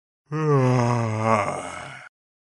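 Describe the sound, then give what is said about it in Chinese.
A voice imitates a big yawn by the Tiger King: one long, loud, drawn-out groaning breath lasting almost two seconds, its pitch sliding slowly downward before trailing off, with nothing else around it. “之后，老虎国王打了个大大的哈欠，”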